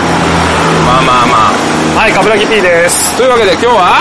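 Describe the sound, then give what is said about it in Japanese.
Steady, loud road traffic rumble from passing cars at around 11:30 at night in Atami, Japan, fills the background, with a man talking over the continuous noise. “これ多分めっちゃ車の音入ってるじゃないですか。”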